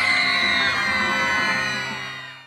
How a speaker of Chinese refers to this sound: 不管喜儿到哪里，她的粉丝都会为她疯狂，他们会尖叫。